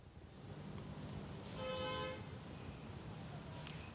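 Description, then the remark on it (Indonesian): Busy but flowing morning road traffic at the Simpang Jomin junction in Karawang, West Java, Indonesia, heading from Cirebon and the Pantura route toward the Cikampek toll gate, rumbles steadily, with a single clear car horn honk near the middle, about half a second long, over the continuous hum of passing vehicles. “arus lalu lintas di Simpang Jomin dari arah Cirebon atau jalur Pantura menuju gerbang tol Cikampek, Cikopo dalam situasi ramai lancar”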